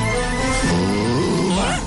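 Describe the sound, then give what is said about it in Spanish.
A dog named Canelo whines in a continuous, wavering, high-pitched whimper that rises and falls for about two seconds, with no talking over it. “Ay, ay, ay, Es que es un perro, pues.”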